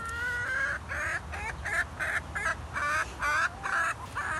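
Chickens cluck repeatedly in a coop, a steady stream of short, bright, nasal calls overlapping one another at a moderate level, with no talking.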